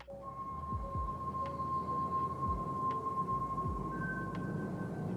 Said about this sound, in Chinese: 那有人会说，嗯，这部电影的音调怎么会有一种诡异找不到调的感觉？尤其是。哎，开头不是有一个很像口口哨的声音啊？我们这边我本来想说我们吹给大家听，但是这边就先放音效给大家听。